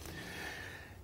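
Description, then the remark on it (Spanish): A pet dog named Pedrito snorting, a second of breathy, rough nasal huffing with no one talking over it. “perdón porque ese es mi perro, eh, Pedrito.”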